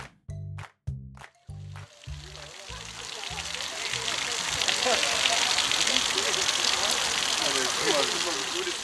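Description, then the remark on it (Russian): A brief voice at the start gives way to a heavy, steady gush of liquid splashing onto the ground, a loud, continuous torrent of an elephant emptying its bladder, building and holding to the end. “Вы слышите, как слон опорожняет мочевой пузырь.”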